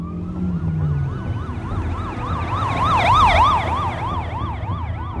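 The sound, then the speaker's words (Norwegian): Police car sirens from many police units wail in a rapid up-and-down pattern, growing louder as they approach and overlapping one another, over a low rumble of engines and road noise, during a car chase after a Ford Scorpio at night in Østerdalen, Norway, with no one speaking. “Og da kom jo til politibiler fra alle kanter, for det var jo varsla eh, mange politienheter.”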